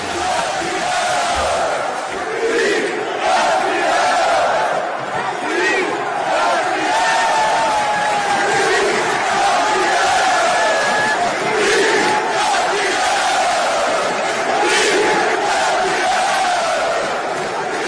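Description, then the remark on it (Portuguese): A large crowd of Fluminense football fans chants in unison, celebrating the club winning the Brazilian championship title, a loud, sustained roar of massed voices rising and falling in rhythmic waves of celebration, filling the whole stretch without pause. “O Fluminense conquista o título brasileiro mais uma vez. Fluminense, campeão brasileiro. A festa tricolor.”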